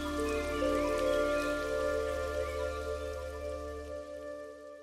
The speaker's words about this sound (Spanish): cuando llovía y se escuchaban los truenos, pues yo estaba en una cabaña, que siempre me ha encantado.